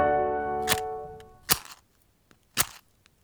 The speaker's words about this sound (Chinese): 乖乖，这是点燃火柴的声音。当你听到这个声音，表示有火被点燃了，那可不是一件开玩笑的事哦。